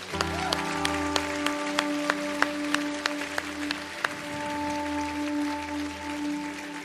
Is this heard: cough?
no